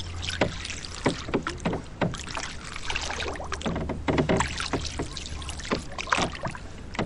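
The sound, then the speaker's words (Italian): A boat rowed in the Venetian style (voga alla veneta) moves on the water in Venice, oars dipping and splashing in a steady rhythm of short strokes over a low, continuous rumble. No one speaks. “Voga alla Veneta, Venezia vista dall'acqua”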